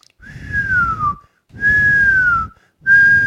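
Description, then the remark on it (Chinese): A person whistles three sustained tones, each gliding slowly downward in pitch, separated by short pauses, a vocal imitation of orange jellyfish moving up and down in a lake. Breathy low rumble accompanies each whistle. “水母没有声音，这是我刚刚想办法去模仿的一个声音，就是水母在上面上上下下、上上下下的一个移动，非常的可爱，非常的疗愈。”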